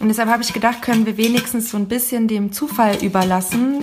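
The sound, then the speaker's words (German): A metal tin, a cleaned dildo package, with paper slips inside rattles and clinks in short, irregular bursts beneath a person speaking steadily. “Also was ihr hier hört, ist mein, ist eine von meinen natürlich gesäuberten Dildo-Packungen.”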